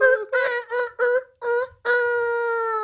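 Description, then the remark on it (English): A person's voice imitates a rooster crow: several short, choppy harmonic bursts followed by a long, sustained held note, loud, with no other sounds around it. “My mine sound like a rooster.”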